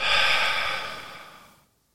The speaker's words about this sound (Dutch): Hier stop je met ademen. Je blijft gewoon in die stilte. Je ademt even niet. Tot je wilt, dan moet weer inademen. In. En weer uit.